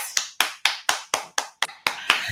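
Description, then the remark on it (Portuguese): A steady run of about nine sharp hand claps in an even rhythm, fairly loud, with no talking over them, welcoming a guest as she is introduced. “Palmas!”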